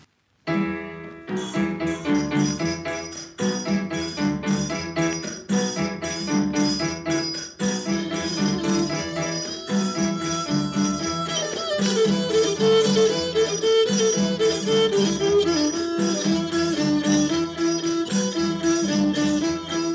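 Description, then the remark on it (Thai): Isan so fiddle folk music plays steadily, a bright, sustained bowed melody weaving over a driving rhythmic accompaniment with regular percussive pulses, loud and continuous with no voices. “วันนี้ร่ำลาทุกท่านด้วยเสียงสอบเพราะๆ”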